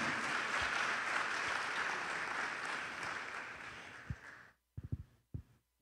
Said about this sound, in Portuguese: Pode aplaudir o nome de Jesus?